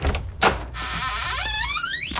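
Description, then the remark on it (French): A door creaks slowly and discreetly open in the dark, a drawn-out squeal that rises steadily in pitch, preceded by a couple of soft clicks from the latch, with no voices. “ça commence toujours par une porte qui s'ouvre discrètement dans l'obscurité.”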